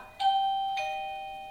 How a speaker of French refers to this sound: ça sonne. C'est ma sonnette.